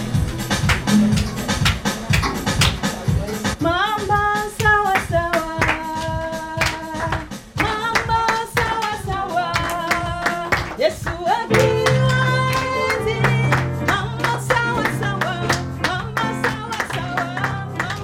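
A church audience claps steadily in time to loud keyboard-backed music performed by a family from Congo, sharp rhythmic handclaps running under singing voices and a driving bass line throughout.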